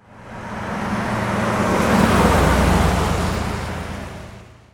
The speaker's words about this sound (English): This base layer is the car pass by that I made to layer under all these and sort of give them consistency.